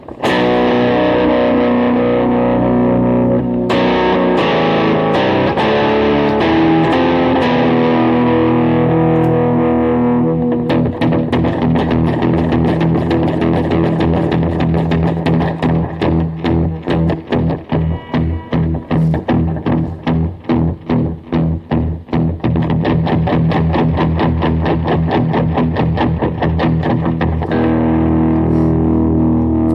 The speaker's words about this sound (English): As you can see, I got the uh, the whammy pedal out. I haven't used this thing in years. Haven't used it in a lot, long time because technically it's kind of broken. But it works fine for this.